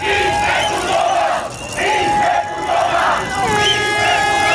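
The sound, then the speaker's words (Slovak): A large crowd of protesters shouts and chants loudly in unison outdoors in front of the presidential palace, voices rising in repeated waves with brief dips between, dense and continuous throughout. “Protestujúci dav dokázali policajti od turistov i od okolo idúcich rýchlo rozlíšiť a do 10 minút na námestí urobili poriadok.”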